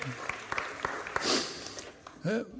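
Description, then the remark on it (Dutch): An audience applauds, a steady wash of clapping with a few sharper individual claps standing out, fairly soft overall, before a voice briefly speaks near the end. “Nou, jullie mogen gaan zitten. Applaus.”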